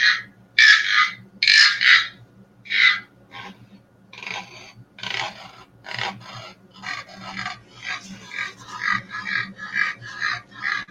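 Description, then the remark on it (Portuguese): A handmade instrument, a gourd with a balloon inside and several holes, rasps out croaks imitating several frogs, starting as a few loud separate bursts, then quickening into a steady chorus of overlapping raspy croaks, fairly loud. “Por exemplo, aqui é um, é um balão, é, é um, uma cuia com um balão dentro e vários buracos para imitar o coachá de vários sapos, por exemplo.”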